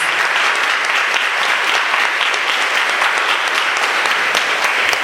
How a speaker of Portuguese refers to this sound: Vamos aplaudir a palavra de Deus, filhos queridos.